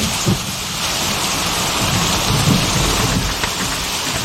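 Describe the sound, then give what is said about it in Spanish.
Steady, heavy rain hisses on surfaces while low thunder rumbles underneath, swelling slightly midway. A continuous storm with no voices. “Después de la tormenta.”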